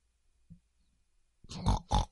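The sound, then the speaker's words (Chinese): Pig grunting: a soft, brief grunt, a short pause, then a rough burst ending in two loud, harsh snorting grunts in quick succession. No one speaks. “皮皮猪继续去找妈妈。”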